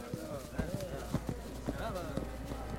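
Steady, rhythmic marching footsteps of soldiers, several sharp thuds in an even cadence, fairly close, with a low humming tonal layer running underneath.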